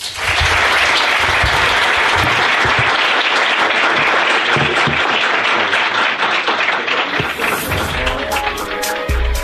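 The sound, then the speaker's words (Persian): An audience at an event breaks into sustained applause to thank the event's sponsors and supporters, a dense, steady wash of many hands clapping at a loud, even level for the whole stretch, with a few sharper individual claps near the end. “مرسی که انتخابتون بود که پیش ما باشید امروز خیلی ممنون ممنون تشویقشون بکنید مرسی”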